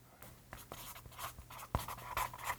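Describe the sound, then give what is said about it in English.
Quiet scratchy scribbling of a pen on paper as an answer to a quiz question is written down, a steady run of short strokes with one sharper tap partway through, with no talking. “Got your answer written down for that one?”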